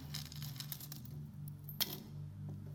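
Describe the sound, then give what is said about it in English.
Metallic clinks of a quarter (25-cent coin) dropping among other coins, a few light jingles followed by one sharp clink, over a steady low hum with no talking. “lots of coins with this one. It's a quarter, it's 25 cents”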